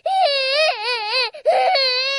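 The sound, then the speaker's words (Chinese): A child cries loudly inside a small house after being scolded by a man, in two long, sustained wails separated by a brief catch of breath, the high, strained voice wavering up and down in pitch. “”于是乎，这个孩子就在屋里哭了一夜。”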